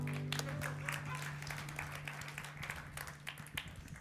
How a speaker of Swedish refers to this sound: Ja, det hängde en applåd i luften. Låt den komma.